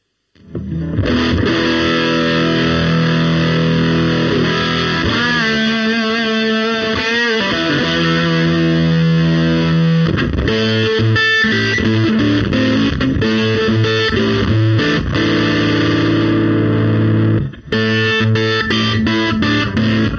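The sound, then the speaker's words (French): A heavily overdriven electric guitar, its signal boosted about 45 dB over the guitar's original signal through a V-Twin preamp, plays alone for about twenty seconds, loud and thick with saturated, sustained chords and riffs, with a brief break near the end before it resumes. “Donc je sais pas, je dois être à, à plus 45 dB de, signal versus le, signal d'origine de la guitare que j'envoie dans, dans le celt V-Twin.”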